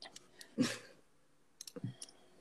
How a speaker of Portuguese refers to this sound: O que, que você tava digitando aí? Puta barulhão.